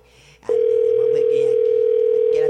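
A telephone line's steady dial tone comes in after a brief pause and holds at one unbroken mid pitch for about two seconds, loud over faint background voices, as someone places a phone call.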